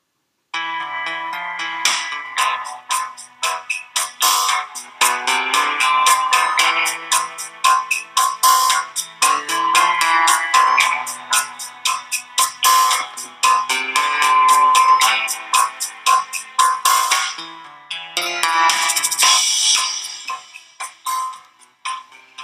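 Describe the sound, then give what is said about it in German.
Tango music plays on its own, with crisp staccato accents driving a steady rhythm and bright, reedy melodic lines, loud throughout apart from a brief dip near the end. “Also Leute, jetzt kommt tolle Musik, wir kommen jetzt alle in die meditative Stimmung und äh, ja, kommen alle wieder runter genau.”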